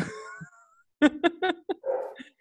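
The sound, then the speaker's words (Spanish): Dogs whimper and bark: a high, drawn-out whine, then four quick sharp barks in a row, followed by another whining yelp. No one speaks. “Bueno, hoy los perros vinieron a saludar.”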